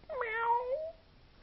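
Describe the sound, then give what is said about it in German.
A single drawn-out meow, voiced by a person imitating a cat while arching their back into a rounded cat pose during an exercise, rising and then gliding down over about a second, clear with no other sounds. “Wenn du in den Katzenbuckel kommst, dann miaust du wie eine Katze.”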